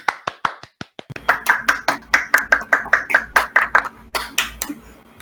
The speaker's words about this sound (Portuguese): Vamos bater palmas.